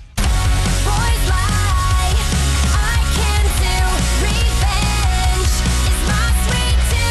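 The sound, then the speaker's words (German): A loud, dense new pop-rock song plays on its own, with driving drums, bass and distorted guitars filling the mix and a female lead voice singing melodically over the top throughout. “gefühlt hat sich nichts geändert, immer noch Poprock, so wie er im Buche steht”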